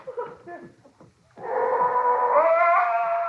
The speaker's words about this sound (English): I've got to get rid of that blasted dog.